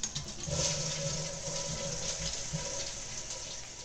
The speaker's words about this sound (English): Sitting on a toilet. Now flush.